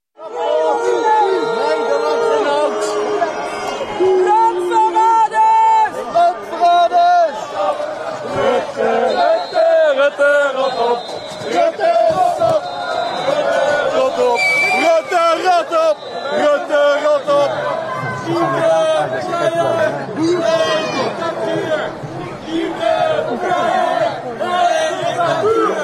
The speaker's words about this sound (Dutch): Boegeroep, fluitjes en kreten als landverraders en oprutten.